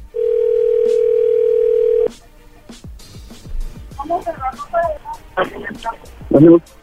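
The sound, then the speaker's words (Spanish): While a phone number is being redialed, a steady, loud telephone dial tone hums on one pitch for about two seconds, then cuts off with a click; several short clicks and brief bursts of talking follow. “Ah, vuélvale a marcar a ver si otra vez sí lo escucha.”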